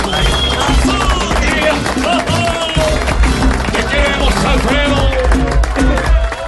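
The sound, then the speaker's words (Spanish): A crowd applauds a violinist steadily with dense clapping throughout, mixed with voices cheering and calling out, loud and sustained over several seconds. “Un aplauso fuerte para Estefania Olestá”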